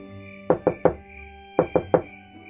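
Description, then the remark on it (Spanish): Two quick sets of three sharp knocks on a tree trunk, evenly spaced with a short pause between groups, fairly loud against a faint steady background hum. “Se escucharon unos golpes en el tronco del árbol.”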